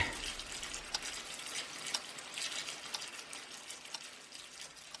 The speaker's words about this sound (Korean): 새벽 6시 301호가 일어나서 세수하는 시간 정확하군.